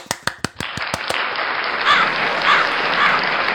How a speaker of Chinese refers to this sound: 在接下来的一个小时，我找好了左边、右边两边的朋友和我一起，带动了全场的气氛。部分情景如下：校长说：“想当年啊，我为了节约时间，一天只上一次厕所。”鼓掌。